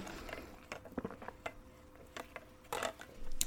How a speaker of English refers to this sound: I had to take a chug of water.